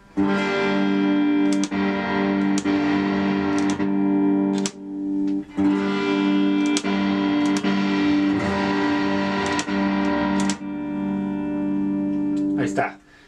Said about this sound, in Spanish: Están escuchando la guitarra a través del el FRFR y por el micrófono de la cámara, entonces si se feo es por eso, viejitos.